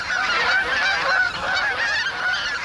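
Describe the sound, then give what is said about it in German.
Greylag geese honk continuously in a dense, overlapping chorus, many birds calling at once with nasal, repeated cries, in a nature reserve at the mouth of the Isonzo river near Grado, Italy. Fairly loud and steady throughout, with no voices present. “In der Heimat der Graugänse kennt sich einer besonders gut aus.”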